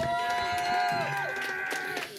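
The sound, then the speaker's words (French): An audience applauds loudly and continuously for a couple of seconds, with sustained cheering voices and whoops ringing over the dense clapping, giving a round of applause for Milan at the console during an evening event before a ninja film. “Mesdames et messieurs, une grosse main d'applaudissements pour Milan à la console.”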